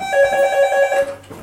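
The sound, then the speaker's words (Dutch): A telephone rings in a home in Ghent with a steady electronic tone, loud, sounding for about a second before cutting off into quiet background noise. “Kijk, dat is de telefoon.”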